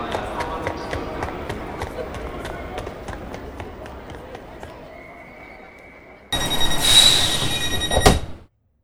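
An old train rumbles along the rails with steady, rhythmic clacks over the track joints, then a thin metallic squeal, before a louder, harsher roar of the carriage takes over near the end.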